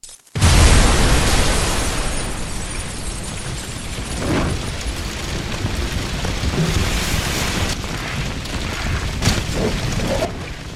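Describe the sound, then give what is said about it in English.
A building explodes with a sudden, heavy blast that blows the kitchen wall clean out. The whole building is then ablaze, with a loud, steady roar of fire studded with crackles and small pops. No voices are heard. “The whole building's ablaze. Gone up like the Hindenburg.”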